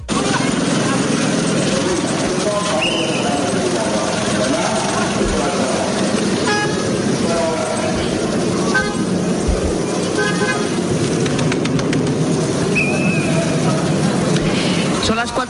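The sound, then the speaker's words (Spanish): Congested traffic in the afternoon at the Rafah crossing, at the southern end of Gaza where it connects with Egypt, fills the scene with a constant roar of engines, while car horns toot now and then, short and long, amid a background murmur of many voices. “lo que escuchas es el paso de Rafa, justo en el extremo sur, el que conecta Gaza con Egipto.”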